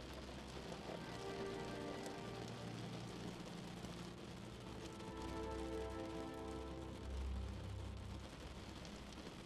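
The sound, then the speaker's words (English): Steady rain patters and taps against a window, a dense continuous hiss with a low rumble underneath, no voices present. “Each raindrop unburdens your mind. Each tap on your window pacifies even the most bothersome thought to a quietness.”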